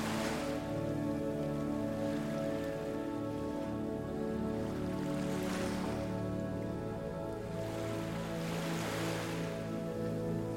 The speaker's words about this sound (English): As the breeze picks up, the rhythm changes waves begin to wrap the boat gently, and you can hear the water splash against the bow.